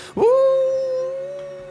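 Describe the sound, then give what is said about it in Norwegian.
The Fimbulverg creature howls as it retreats, already moving, so the howl carries a Doppler effect: it starts abruptly and holds one long, loud, harmonic-rich tone, its pitch drifting upward slightly partway through. No one speaks. “Eh, du legger merke til at eh, idet Fimbulvergen trekker seg tilbake, eh, og du hører dette hylet, så er det allerede i bevegelse. Altså, du, du får denne her dopplereffekten av hylet.”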